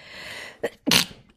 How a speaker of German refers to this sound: Ich muss niesen. Ja. Aber ich kann gerade nicht.